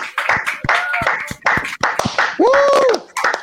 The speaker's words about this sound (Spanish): que los recibimos con un fuerte aplauso en esta noche.